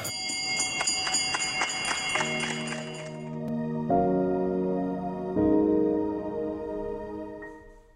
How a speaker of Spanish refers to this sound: Y el segundo es tocar una campana mediana de cobre que se colocó en una pared improvisada llena de mensajes de aliento y testimonios de vida de todos los que afortunadamente logramos tocar dicha campana.